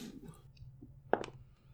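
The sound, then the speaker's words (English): Small sparkly Fey dice, rolled for initiative in a tabletop game, land on a table with a quick pair of sharp clicks over a low, quiet background hum, then the sound stops. “I rolled a four.”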